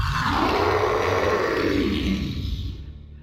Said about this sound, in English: But before either man had even opened their doors, an ear splitting scream that would have filled a banshee with paralyzing fear erupted from the woods behind them.